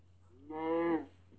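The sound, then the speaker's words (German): A single cow in a video game moos once, a short, steady lowing call with a rich harmonic tone, heard alone over a faint constant hum. “Das sind gar keine Gegner, die Kühe.”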